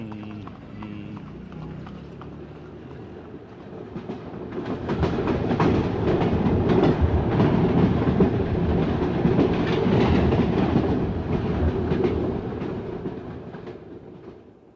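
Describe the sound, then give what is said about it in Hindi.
A train rumbles along the rails with a steady clickety-clack, swelling louder as it passes, then easing slightly as the rhythmic wheel beats continue. “आइए रेलगाड़ी में बैठें और कोयटे से कलकत्ते तक चलें”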